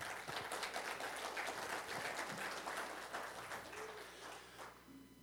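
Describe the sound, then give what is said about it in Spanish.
A church audience gives loud applause to the young people, a dense steady patter of many hands clapping at even loudness for several seconds, tapering slightly toward the end with no voices. “Un aplauso fuerte a los jóvenes.”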